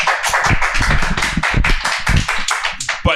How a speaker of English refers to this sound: hold up your applause sign for the audience